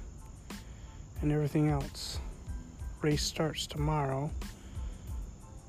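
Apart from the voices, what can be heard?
crickets chirping at night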